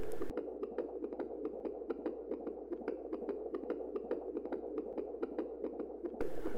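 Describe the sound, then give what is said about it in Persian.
A rapid, steady heartbeat pounds throughout, each quick thump repeating at a racing pace over a low, muffled hum, continuous with no talking. “احتمالا ناگهان خودتان را عقب کشیده اید و ضربان قلبتان به اوج رسیده است”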